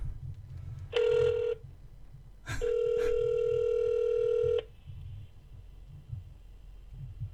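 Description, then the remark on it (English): A phone's outgoing ringback tone sounds twice: a short steady tone, a pause, then a longer two-second tone, fairly loud over a low background rumble, with no talking. “I'm gonna try to call”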